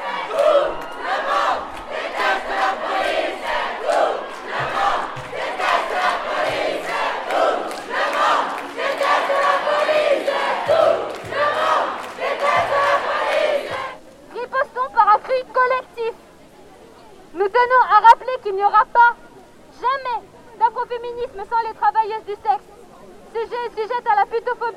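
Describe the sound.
A large protest crowd at a March 8 demonstration chants loudly and steadily, many voices merged together, then falls away to a single amplified voice speaking in short bursts with pauses.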